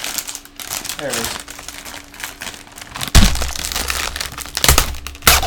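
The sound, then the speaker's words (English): A plastic Oreo cookie package from the USA crinkles and crackles loudly as its pull tab is torn open, with sharp rustling bursts and a brief voice speaking over it. “Here's a little pull tab.”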